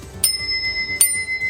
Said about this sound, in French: Et la particularité qui différencie nos deux vélos, c'est la sonnette. Donc on a le côté un peu plus brut